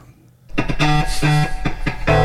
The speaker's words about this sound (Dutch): En er is een jingle bij en die klinkt zo.